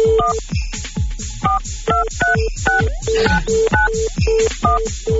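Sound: telephone keypad dialing tones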